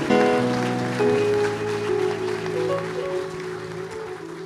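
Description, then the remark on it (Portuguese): A church audience applauds for Jesus steadily for several seconds, a dense wash of clapping over sustained, droning musical tones that hold underneath throughout. “Dê mais uma salva de palmas para Jesus.”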